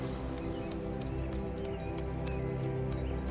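Horses' hooves clatter in a steady, continuous rhythm as riders mount horses and a dog again and ride on, fairly loud, with a dense rumbling bed underneath and no talking.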